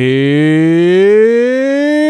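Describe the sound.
A single voice belts out a long, drawn-out hog-calling wail, imitating the 'pig sooie' chant done by the crowd at Arkansas games. The loud, steady tone swells upward and holds for about two seconds.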